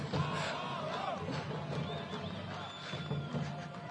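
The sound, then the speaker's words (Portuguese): A large crowd of football fans chants "Amaral é animal" together in a stadium, a loud, continuous roar of many voices rising and falling in a sung rhythm, filling the whole space. “Estão cantando Amaral é animal, a torcida au au Amaral é animal, legal.”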